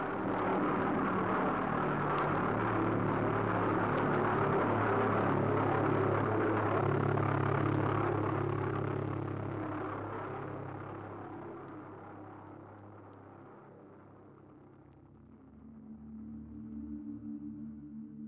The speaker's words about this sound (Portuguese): Quem estava perto escutava aquele som, era um negócio arrepiante e como que eu posso dizer assim, era era angustiante ouvir o som daquela bomba que que era como se fosse um, um drone da época.